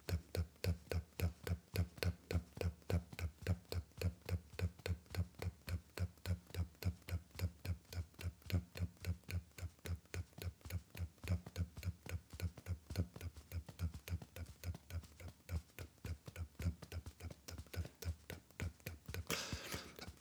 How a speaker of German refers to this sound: folge nun den deinen Fingern und klopfe mit mir. Tap, tap, tap